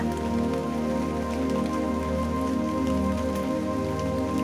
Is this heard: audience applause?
no